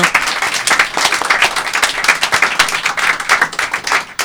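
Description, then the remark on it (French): A live audience at a Radio Delta broadcast from Matana applauds guest Didier Bourdon steadily for about four seconds, a dense, bright wash of many hands clapping at once with a constant loud level and no voices standing out. “Nous sommes en direct, on applaudit notre invité Didier Bourdon.”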